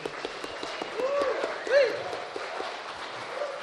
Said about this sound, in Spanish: Este aplauso es para la gente que nos está escuchando en el 96.1 y que no pudo venir.